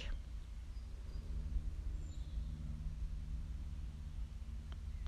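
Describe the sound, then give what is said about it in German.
A distant airplane drones overhead, a steady low rumble with a faint hum that holds throughout, while a single soft bird chirp sounds briefly in the background. “In der Ferne höre ich ein Flugzeug.”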